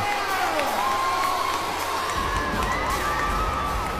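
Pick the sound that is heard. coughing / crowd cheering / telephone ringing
crowd cheering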